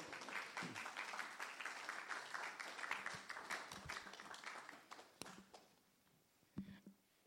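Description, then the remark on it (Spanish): An audience at a church service applauds for the Lord after a prayer as people take their seats, a dense crackle of many hands clapping steadily for several seconds, then thinning out into a few scattered claps and faint shuffling toward the end. “Puede tomar su asiento, dele un aplauso al Señor.”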